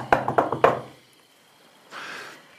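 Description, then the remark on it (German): Three sharp knocks on a wooden door in quick succession, fairly loud, followed by silence and then a brief soft rustling noise. “Okay, dann äh, klopfen wir.”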